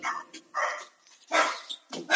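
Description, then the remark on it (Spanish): A dog barks repeatedly, four or five sharp, fairly loud barks in an irregular rhythm, with short pauses between them and no one talking. “Dale de comer al perro”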